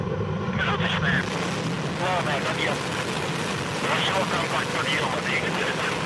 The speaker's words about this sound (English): The Progress MS 11 blasted into orbit on a Soyuz 21A rocket from the Baikonur Cosmodrome in the Central Asian Republic of Kazakhstan. Engine start command issued. Ready, Engines up to flight speed.